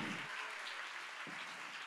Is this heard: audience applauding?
yes